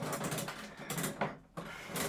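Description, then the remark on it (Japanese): A capsule toy machine crank being turned, producing a run of rapid mechanical clicks and ratcheting grinds with a brief pause midway before the cranking resumes, fairly loud with no talking. “さあじゃあ行きましょう秋の味覚、うん、じゃあもう次のガチャいきますね”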